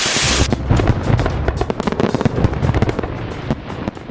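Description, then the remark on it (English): Fireworks going off in a rapid, crackling barrage, loud, with dense pops and bangs following one another without pause for several seconds. “No, Shel, the fireworks!”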